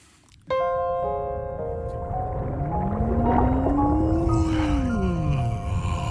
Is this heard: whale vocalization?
yes